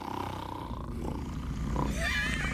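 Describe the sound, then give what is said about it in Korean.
A man in the neighbouring room snoring loudly at night, heard through the wall, one long deep, rattling, guttural rumble that swells and turns harsher toward the end, with no talking over it. “그 소리는 옆방 남자가 코를 고는 소리더군요.”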